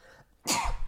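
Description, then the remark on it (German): A single sneeze: a short quiet lead-in, then a sudden, forceful burst of breathy noise that fills the rest of the moment. “Gesundheit.”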